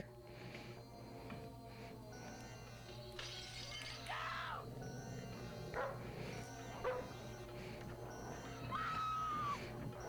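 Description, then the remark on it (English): An aggressive dog barks and snarls in agitated bursts, mixed with crashing, shattering noises and a few high cries over a steady low hum. “This in show business is called a cheat because we never showed the dog actually attacking her because we couldn't have a dog attacker and couldn't get it trained in time.”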